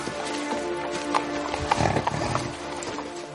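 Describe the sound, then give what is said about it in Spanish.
A horse named Brego, in a scene from the second part of The Lord of the Rings trilogy, clops its hooves steadily and lets out a whinny midway through, all over a busy, continuous background with no clear talking. “Deja libre al caballo.”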